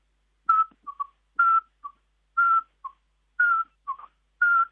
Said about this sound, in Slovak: No a potom najmenšia sova kubičok vrabčí, ten dokonca aj tu, keď som doma v záhradke, ráno z čašie, keď zametám sneh ešte, alebo idem nasypať stákom, na brieždení tak pekne píska.